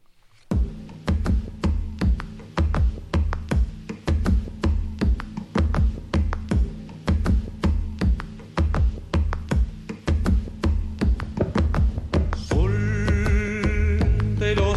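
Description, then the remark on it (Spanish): Paraguayan music plays loud, a steady pulsing beat with regular sharp hits over warm low tones, and a brighter sustained layer swelling in near the end. No voices. “Vamos a escuchar música paraguaya.”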